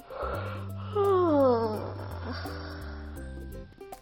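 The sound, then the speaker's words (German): A loud, drawn-out exaggerated yawn slides downward in pitch, performed by a voice over steady background music that keeps playing after the yawn fades. “Und jetzt kannst du einmal ganz laut gähnen.”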